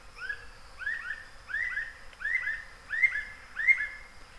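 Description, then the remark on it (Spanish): Amazon rainforest birds calling in a humid primary forest along the road from Leticia to Tarapacá, heard while birdwatching: a mid-pitched whistled phrase repeated about every half second, with overlapping calls and a faint steady insect-like hum behind, no talking. “En esa pajareada vimos de todo.”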